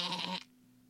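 goat bleating

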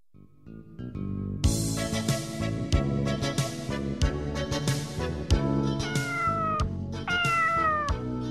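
cat meowing

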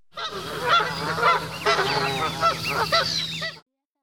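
geese honking

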